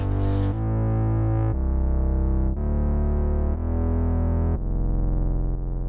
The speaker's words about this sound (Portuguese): E o Prophet a fazer os acordes na mesma com um estéreo super aberto e com reverb e com coros assim enorme.